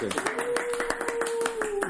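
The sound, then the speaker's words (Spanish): Steady applause, asked for as background applause while team members are introduced, a dense patter of many hand claps running throughout, with a sustained tone and some voices mixed underneath. “Queremos aplausos de fondo, por favor,”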